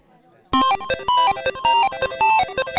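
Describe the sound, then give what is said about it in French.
Neo Geo Pocket console startup sound: a bright, bleepy electronic jingle that bursts in after a brief hush, with quick repeating synth notes in a bouncy pattern, loud and alone. “La Neo Geo Pocket.”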